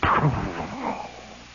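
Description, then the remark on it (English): A voice imitates a big artillery battalion's gun firing in the distance beyond the woods at the foothills of the Ozarks: one low, booming burst that swells briefly and then fades into a trailing, rumbling echo from the hills. “And just as we begin to hear this hum, there is a big artillery battalion off over to the left, way behind the woods. They go,”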